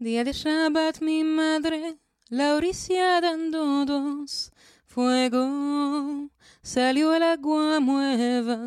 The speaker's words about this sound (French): c'est une chanson judéo-espagnole et le répertoire ladino judéo-espagnol et plein de canticas, romances